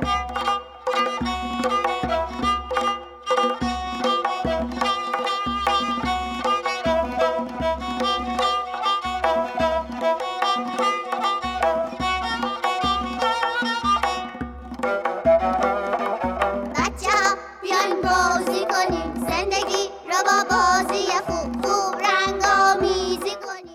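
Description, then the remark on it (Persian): Instrumental music played for a drawing exercise, in which listeners move their hand to the music, plays steadily throughout, with a pulsing low bass beat under sustained melodic tones, shifting midway into a busier, brighter passage with more movement. No voices are heard. “شما به تمرکز روی چیزایی که میشنوید ادامه بدید و دستتون رو با صدای موسیقی تکون بدید.”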